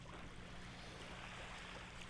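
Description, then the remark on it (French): Ocean waves on a beach make a steady, continuous wash of surf, fairly soft, with a low rumble underneath and no voices. “J'ai voulu calmer un peu avec euh, le son de la plage, le son des vagues, parce que c'est vrai que les rythmes soutenus, des fois, ça peut un peu fatiguer.”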